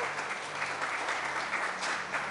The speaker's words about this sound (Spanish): un aplauso al grupo de evangelismo.